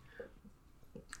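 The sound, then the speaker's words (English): A dog chews quietly in the background, with soft, irregular gnawing and smacking sounds coming in short bursts. Nobody speaks. “I was just about to say, like, sorry for the dog in the background.”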